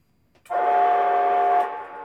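A loud, sustained train horn blares for about a second, steady, then cuts off leaving a brief lingering tail; no talking.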